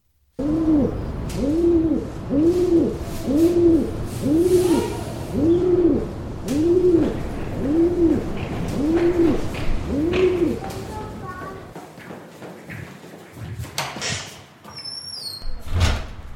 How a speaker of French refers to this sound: un espace de coworking à Vernier où une espèce commune, urbaine, ailée et roucoulante côtoyait au quotidien des créatifs le pigeon.